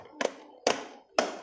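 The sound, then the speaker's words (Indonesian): Three sharp clicks or taps spaced about half a second apart, the plastic button of an electric fan being pressed repeatedly to switch it, with a faint background hum between them. “suara tombol tuh mati boy”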